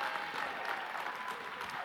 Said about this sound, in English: Can you just give yourself a hand clap of praise? Come on. I want to thank you. Can we give God an even greater hand clap of praise?